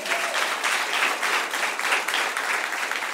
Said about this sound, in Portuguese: Aplauda o Senhor bem forte, igreja.